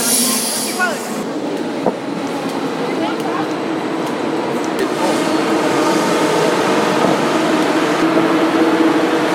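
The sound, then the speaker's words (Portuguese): A train rumbles loudly along the platform as it pulls into the station, with steady rolling noise, faint wheel squeal and a few metallic clicks, while people talk. “Esse é o barulho do bichão.”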